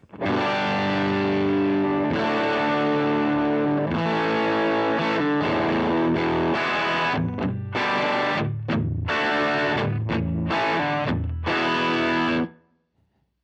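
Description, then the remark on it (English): A heavily overdriven electric guitar plays chords through an overdrive with the drive knob turned up to three o'clock, thick and saturated with bright fuzzy harmonics. The chords are strummed in a loud, steady rhythm, then ring out and stop abruptly. “All right, let's take the drive up to three o'clock here. Getting drivey.”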